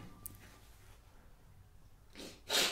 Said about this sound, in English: All right, I got a I got a sniffle problem. Hold up. I gotta take care of my snifflers turn away from the mic.